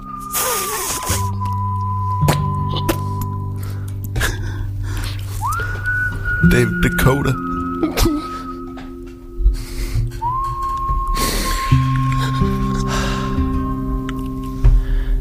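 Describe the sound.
A western-style musical jingle led by long, clear whistled notes that slide up into each sustained tone, backed by steady low instrumental chords. It plays loud, with a brief spoken interjection.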